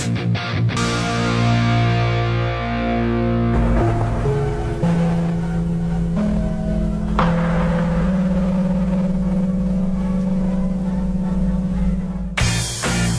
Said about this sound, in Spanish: Radio Yungay. Esa era de Radio Yungay. Ese gong era de Radio Yungay. Qué bonito. Estamos recordando viejos gonzas a propósito de los 100 años de la radio en Chile.